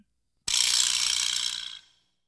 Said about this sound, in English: I think I was trying to play for my friend what a vibra slap sounded like.